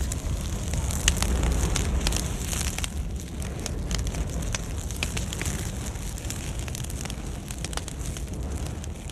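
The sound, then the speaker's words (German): A large forest fire in a boreal conifer forest roars steadily with dense, constant crackling and popping, sharp snaps scattered throughout over a deep rumbling blaze, burning very hot and intense, loud with no voices. “Dafür lodert es dann sehr heiß und intensiv.”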